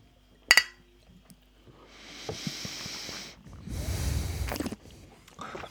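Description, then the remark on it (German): A single bright clink of glasses of elderflower lemonade in a toast rings out near the start, followed by a soft fizzing hiss and some muffled rustling; no one speaks. “Ja, Prost.”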